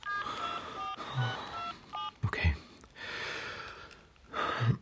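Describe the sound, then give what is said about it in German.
Several sustained keypad tones sound as a mobile phone is dialed to make a call, each beep held for about a second, with a sharp breath or snort in between and a soft hiss afterward. “Ich rufe von hier aus an. Soll ich das Telefon herholen? Nee, lass mal, ich nehme mein Handy.”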